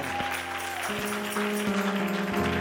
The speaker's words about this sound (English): Come on now, clap your hands to the Lord.